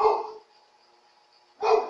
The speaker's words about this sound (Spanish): Bueno, eh, aquí voy a cortar la transmisión porque mi perro ya está ladrando mucho.